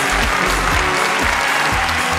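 Steady, dense applause from an audience congratulating a contestant on advancing in a competition show fills the whole moment, a continuous wash of clapping at an even, fairly loud level with no voices breaking through.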